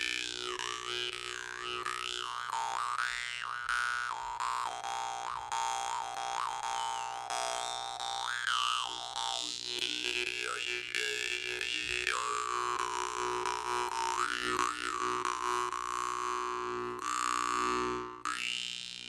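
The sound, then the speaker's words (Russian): A jaw harp twangs continuously, its buzzing drone shifting in bright, warbling overtones as the player changes mouth shape, with a brief pause near the end before resuming. “Путь варганиста”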